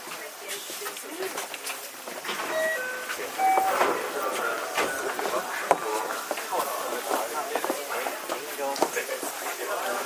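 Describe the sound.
A JR 323 series electric train, running from Momodani around to Momodani and arriving at Nishikujo Station, runs along with a steady rumble. Its motors give off short rising whining tones as it picks up speed. Some background voices can be heard under the noise.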